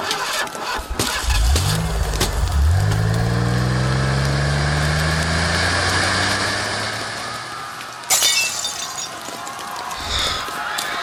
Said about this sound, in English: Hey, there's a truck. That's what we need. Start the engine. Start the engine.